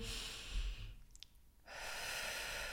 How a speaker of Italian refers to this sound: un'inspirazione e un'espirazione come una danza